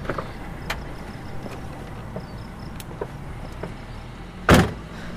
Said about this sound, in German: Guck doch, das Auto, das da gerade um die Ecke kommt, das ist...